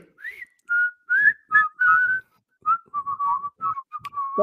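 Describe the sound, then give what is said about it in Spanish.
A person whistles the short, bouncy Donofrio ice cream vendor jingle, a string of clear phrased notes, some held and some quick, imitating the street vendor's tune with no talking. “el silbido de Donofrio es plagiado, porque es básicamente es una canción de …”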